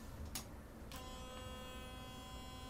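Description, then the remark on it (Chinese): A couple of sharp clicks, then an electric toothbrush, switched on to show to the pet Taro, starts a steady, even buzz with a thin whining tone that holds without change until the end. No one speaks. “哎、我开的这是电动牙刷，大家不要误会我开别的东西。”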